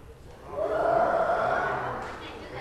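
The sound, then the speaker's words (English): A person's voice imitates a lion's roar: one sustained, rough vocal growl that swells and holds for about two seconds before fading, moderately loud. “How about imitating a lion?”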